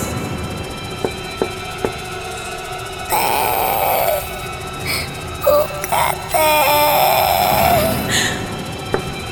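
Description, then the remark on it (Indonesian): A small child cries in two drawn-out, wavering wails with a short break between them, fairly loud, over a faint hissing background with no talking. “Rasanya mendengar suara anak kecil itu menangis.”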